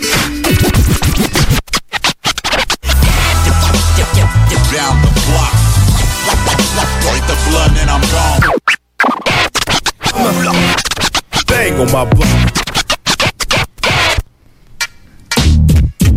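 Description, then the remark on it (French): Rapid DJ turntable scratching over a loud, bass-heavy hip-hop beat, with choppy stop-start cuts and brief dropouts as the record is pushed back and forth, dense throughout. “Délire de scratch.”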